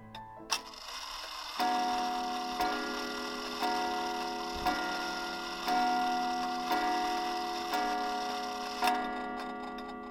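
A cracked alarm clock ticks briefly towards midnight, then begins striking, a steady series of ringing metallic chimes about once a second, each tone lingering into the next, fairly loud with no voices.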